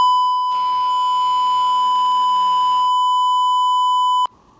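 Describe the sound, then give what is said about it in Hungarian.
A phone's steady electronic beep tone, signalling that the call is on a headset, holds loud and unbroken for about four seconds, partly overlaid by muffled noise, then cuts off abruptly with a brief lower tone after. “mint azt a mellékelt mérőjel csengő hangjelzés.”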